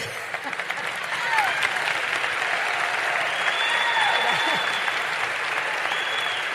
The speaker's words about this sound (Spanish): Entonces, y voy a decir como Paco Bazán, si va a aplaudir, aplauda con ganas.